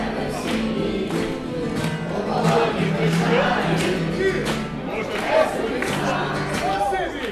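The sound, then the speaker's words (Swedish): A street crowd in the old town sings together with street musicians, the audience at times taking over, many voices blending into a loud, steady wash of sound, with sustained pitched notes rising above a dense murmur throughout. “Här sjunger man tillsammans och ibland är det publiken som tar över.”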